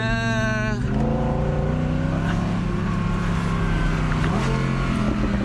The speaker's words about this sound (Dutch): Wouter test de Audi R8 V10.